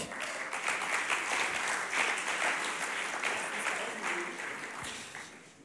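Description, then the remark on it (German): Sustained applause from an audience at a sermon for a volunteer called up onto the stage, a dense wash of many hands clapping at steady volume for several seconds before tapering slightly at the end. “Ein Applaus”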